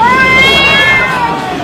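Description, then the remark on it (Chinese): A single long, drawn-out cat meow, loud and whiny, its pitch sliding up slightly and then easing back down over a steady, noisy background. “因为啊，全中国的猫都叫咪咪。”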